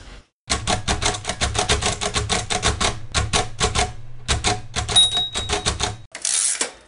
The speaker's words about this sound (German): es gibt verschiedene Schreibmaschinen und natürlich entstehen auch beim Lesen auf der Breitzelle und auf dem Papier ganz typische Geräusche und die sind da so ein bisschen als Collage mit drunter gemischt.